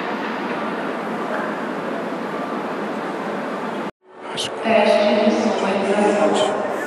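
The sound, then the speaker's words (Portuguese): A subway train pulls into a station: a loud, steady rumble, a sudden brief drop, then high metallic brake squeals and hums ringing out, with faint voices mixed in. “Então termina aqui com a chegada do trem na estação.”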